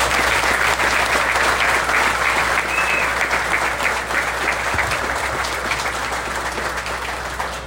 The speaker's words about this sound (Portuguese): Gente, temos que tirar o chapéu para os nossos profissionais de saúde. A gente tem que dar uma salva de palmas bem calorosa para eles.